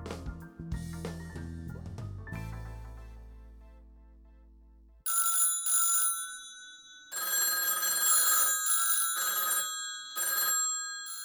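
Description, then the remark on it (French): A telephone bell rings in repeated loud bursts with short pauses between them, following a few seconds of music that fades out; no one speaks. It is one of Madame Claude's two telephones ringing in her apartment on rue Marignan. “Ses deux téléphones sonnent en permanence dans son appartement de la rue Marignan”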